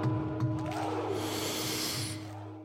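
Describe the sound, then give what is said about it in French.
A long, deep breath drawn in on a spoken cue to inhale, a steady airy rush lasting about two seconds before fading, over a low, constant background hum. “Pensez à votre pari. Inspirez.”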